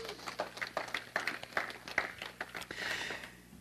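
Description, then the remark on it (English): A crowd claps together in a steady, dense burst of applause for the worship team, lasting a few seconds, with a few brief high cheers or whoops rising over the clapping. “Can we just give the worship team and our, our God a round of applause?”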